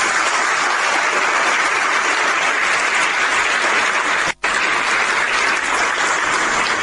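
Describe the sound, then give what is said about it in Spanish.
Sustained applause from an audience for a group of retired public-school teachers fills the whole stretch, a dense steady clatter of many hands clapping at once, loud, with only a momentary break partway through. “y también con especial cariño esta tarde saludar a quienes han dado todo por la educación pública, han dado todo por nuestra comuna, como lo es a los representantes de los profesores jubilados, agrupación Pedro Aguirre Cerdo Un aplauso para ellos.”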